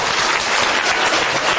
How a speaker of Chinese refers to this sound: 来来，好，掌声鼓励一下。